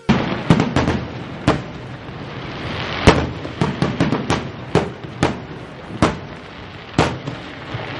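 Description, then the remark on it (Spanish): A fireworks display: a quick series of sharp bangs and crackling pops at an irregular rhythm over a steady rumbling hiss, loud and with no voices. “Fiesta, celebración, fuegos artificiales.”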